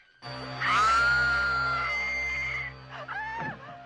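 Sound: woman screaming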